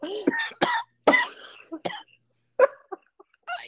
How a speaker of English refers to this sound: I tried I tried to explain the finer points of calling in sick. like you have to sound sick. And I demonstrated for her how you do that. You cough.